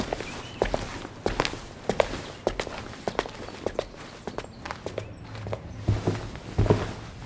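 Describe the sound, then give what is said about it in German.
Footsteps of two people walk steadily across a hard floor into a large, ornate courtroom, a brisk overlapping rhythm of heel clicks with a slight echo and a low room hum beneath. “Nora und Walter betreten den Gerichtssaal.”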